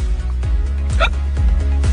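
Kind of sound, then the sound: human body sound, hiccup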